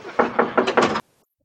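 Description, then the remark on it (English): Four firm, evenly spaced knocks on a door by someone arriving for a 12:30 lesson, loud, in a quick steady rhythm before cutting off abruptly into silence. “Hey, not that door, that's my 1230 lesson, the back door.”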